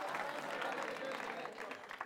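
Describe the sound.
An audience claps steadily throughout, a dense wash of many hands that stays fairly loud before easing slightly at the end, with some crowd voices mixed in.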